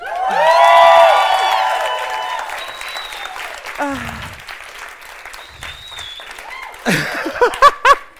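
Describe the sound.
A crowd claps and cheers loudly, with high whoops riding over dense applause at first, then the clapping gradually thins out as people begin talking over it.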